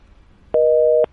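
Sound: telephone busy tone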